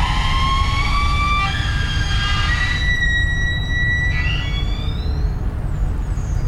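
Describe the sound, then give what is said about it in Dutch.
A ship's hull squeals as it scrapes along a quay, a long, wavering high-pitched whine of sliding tones, like a whale's call, over a steady low rumble with no talking. “Eh, dat piepen dat is uh, het schip langs de kade schuurt.”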